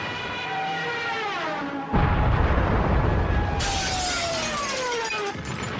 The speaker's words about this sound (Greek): Δεν πρόφτασα να ξαναπιάσω την κουβέντα και το χαρακτηριστικό σφύριγμα της βουτιάς του αεροπλάνου, της μπόμπας και η έκρηξη.